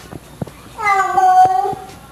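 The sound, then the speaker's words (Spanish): A single drawn-out meow from a female cat, fairly loud, lasting about a second with a slightly whiny, wavering tone, preceded by a few faint taps or clicks. “hoy es el día del gato”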